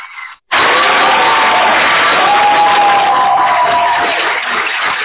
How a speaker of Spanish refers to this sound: no, con el aplauso, con el aplauso no se oye la voz, así que hay que esperar a que terminen esos nutridos aplausos, ah, pues para poder hablar.